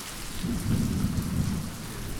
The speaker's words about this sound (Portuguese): Chove chuva, rua alaga.